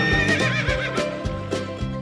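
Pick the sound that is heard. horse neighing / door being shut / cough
horse neighing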